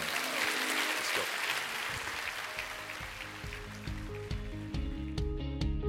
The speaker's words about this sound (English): Amen. Clap your hands to the Lord right